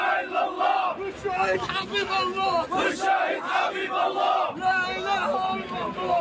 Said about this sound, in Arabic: شيع جثمان شيرين اليوم وسط هتافات وشعارات بتندد باغتيالها وبقتلها بدم بارد